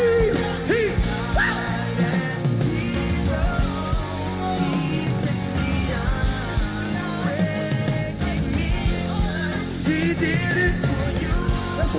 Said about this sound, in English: I don't know who you are, but if you know that you know that you know that God is real and he died for your sins, I need you to stand to your feet, put your fist in the air, and scream.